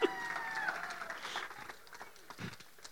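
A crowd breaks into brief applause, a dense patter of clapping with a shrill whistle rising over it early on, then thinning into scattered claps and crowd murmur.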